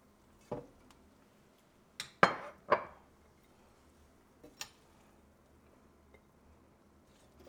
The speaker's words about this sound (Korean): 제가 새로운 또 그릇이 생겨갖고 네 잠깐만 조금만 더 저으면서